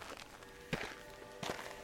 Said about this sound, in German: Sie stapfen durch den sauren Regen zum Bahnhof.